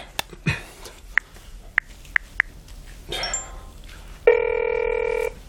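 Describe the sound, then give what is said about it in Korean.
A few short, evenly spaced electronic beeps give way to a steady, buzzy mobile phone call ringing tone that holds for about a second, clear with no voices. “아, 핸드폰 켜져 있어.”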